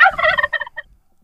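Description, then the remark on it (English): A turkey gobble sound effect, loud, a rapid warbling burst that breaks into a few quick, fading stutters before cutting off into silence. “Oh, the one show per year where we spend money on a special effect.”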